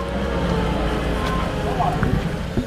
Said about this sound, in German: Überall wird noch gebaut. Auf dem Vorplatz sind Baumaschinen zu hören.